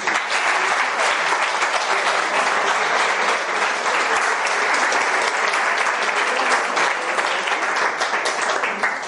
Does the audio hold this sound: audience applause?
yes